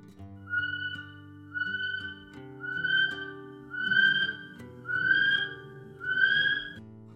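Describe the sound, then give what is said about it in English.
A male kiwi calls at night in a forest, giving a series of six shrill, rising whistles, evenly spaced and growing slightly louder with each note, ringing out clearly against a quiet low background hum. “Male Kiwis sound like this.”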